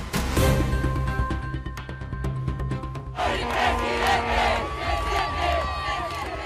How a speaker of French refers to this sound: Vous l'entendez, la joie au Chili, des sympathisants de Gabriel Boric, le député de gauche, a remporté hier soir l'élection présidentielle, en scrutin déjà historique.